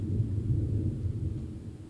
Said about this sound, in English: And I'll just note that there's more thunder, so you know, Pluto's not Pluto's an earth god, a deeply chthonic earth god, but I think he might be riding the sky tonight.